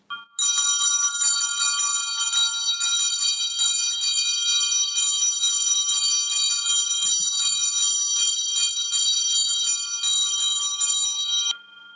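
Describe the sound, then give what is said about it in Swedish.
Church bells in Hökarängen ring the helgmålsringning marking the start of the weekend: a continuous, overlapping peal, bright metallic strikes sustaining for about eleven seconds with no talking, then stopping abruptly. “Här kommer en helgmålsringning från Hökarängen.”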